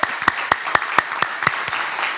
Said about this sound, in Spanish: Así que cuando tú estés, dele, palmas fuertes al Señor.